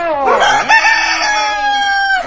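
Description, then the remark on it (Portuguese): A rooster crows once, loud, its call rising sharply and then holding in a long, drawn-out cock-a-doodle-doo with no talking over it. “Olha o galo!”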